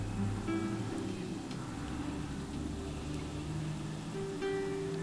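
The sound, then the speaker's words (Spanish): A bus passes outside, its deep engine rumble droning steadily for several seconds, muffled as if heard through a window, with no voices. “Tuve esta pausa porque acaba de pasar un autobús y no sé si se escuchó, pero si se escuchó, bien hecho.”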